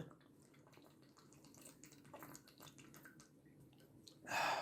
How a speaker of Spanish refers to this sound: Una bueno, una interrupción para tomar agua.